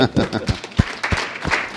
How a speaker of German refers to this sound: Applaus für Hans Berger auf seiner Riesenorgel.